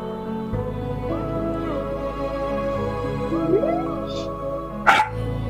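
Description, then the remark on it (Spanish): A dog gives one sharp, loud bark near the end, after a few faint whiny yips, all over a steady low background hum. “Oh, el canito. Y ese perro.”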